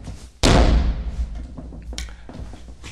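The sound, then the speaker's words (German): A single loud, heavy thud as a chair is set down hard on the floor to make a noise, followed by a decaying rumble and a few faint knocks and shuffles. “Zum Beispiel den Sessel einfach laut hinzustellen. Geräusch 1. Oder aufzustampfen.”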